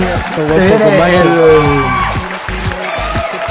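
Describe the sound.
Loud whoops and cheering voices rise and fall for a couple of seconds, then give way to a scattering of sharp claps that continue to the end.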